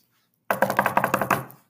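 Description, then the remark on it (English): A quick burst of about nine sharp, hard knocks on a door, rapped in an even, rapid rhythm, then silence. No voices. “The wolf knocked on the brick house.”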